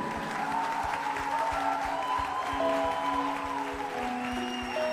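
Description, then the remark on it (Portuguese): A church audience applauds the Lord steadily, a dense rattle of many hands clapping at once, with sustained musical tones humming underneath throughout. “eu vou contar até três, você vai aplaudir ao Senhor.”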